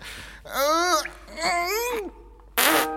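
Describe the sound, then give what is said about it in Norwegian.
A man makes a few buzzing, wobbling fart noises, two drawn-out warbly ones followed by a short loud raspberry burst, fairly loud. “Han prompa igjen.”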